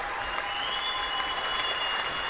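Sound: applause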